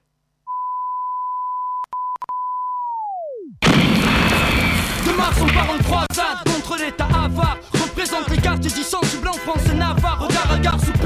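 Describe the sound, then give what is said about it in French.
A steady high electronic tone hums with a few sharp clicks, then swoops downward in pitch and cuts out, and a loud, dense old-school French rap beat with heavy drums and bass kicks in. “Alors avant de poursuivre la discussion dans un instant, on va s'écouter un petit son à l'ancienne, classique,”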